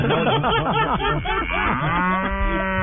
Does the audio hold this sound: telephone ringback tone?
no